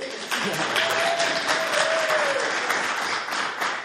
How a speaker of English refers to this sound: You can applaud.